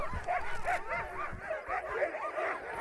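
A pack of huskies barks, yips and whimpers in a continuous, overlapping chorus of high-pitched cries, steady throughout.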